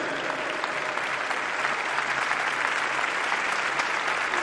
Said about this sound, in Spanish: Un aplauso que refleja esa alusión a la Virgen de Fátima. Y la cercanía de todos aquellos jóvenes que no tuvieron la oportunidad de venir a Lisboa.